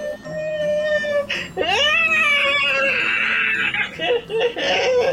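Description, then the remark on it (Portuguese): A voice imitates a living mountain's drawn-out wailing cry, loud, with sobbing pitch swoops rising and falling continuously for about five seconds. “A montanha está viva e está chorando pedregulhos.”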